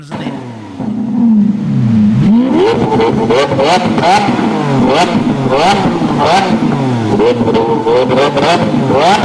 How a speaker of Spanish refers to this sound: Oigan cómo suena un Lamborghini. A ver.